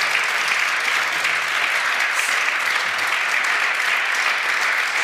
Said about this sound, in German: Wir sehen es bei uns im Studio, ist es ziemlich rot, darum auch der Beifall.